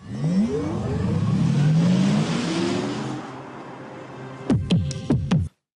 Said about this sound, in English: This is what the Audi R8 e-tron sounds like on the road.